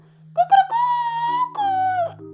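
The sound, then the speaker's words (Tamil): A person imitates a rooster's crow to mark daybreak: a couple of short clipped notes rising into two long, drawn-out wavering calls, loud, with no other talking. “பொழுது விடிஞ்சிருச்சு அப்படின்னு சொன்னாலே சேவல் கத்துற சத்தம் தான் கேட்கும் இல்லையா நம்ம அதை ஆனால் கோழி கூவுது கோழி கூவுதுன்னு சொல்லுவோம் ஆனால் சேவல் தான் கத்தும்”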